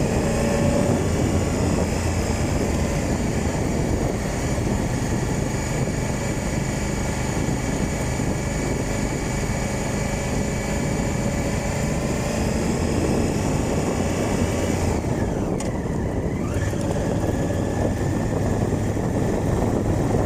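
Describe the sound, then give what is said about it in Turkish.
A motorcycle rides over a rough, stony, uncomfortable road that is part of the Lycian Way, its engine droning loudly and steadily with a constant rumble throughout, and no one speaking. “Yolun büyük bir kısmı motor için hayli bozuk, taşlı, konforsuz.”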